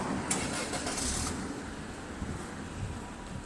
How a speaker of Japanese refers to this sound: ちょっと車を車が通り過ぎるので、ね、結構交通量が交通量が多いんですよね